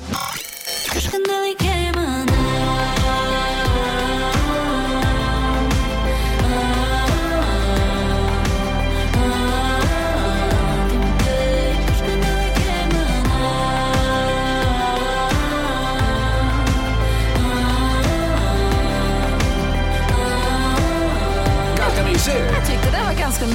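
A pop song plays at steady full volume after a brief rustle at the start, with a pulsing bass beat, layered synths and melodic harmonic lines running throughout, with no one talking over it.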